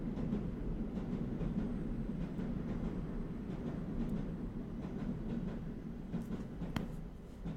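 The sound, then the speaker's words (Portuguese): A CP (Portuguese railways) train rumbles past with a steady low roar and rhythmic clacking of wheels on track. It is loud and fills the whole moment, with no voices. “O comboio tem algo a dizer.”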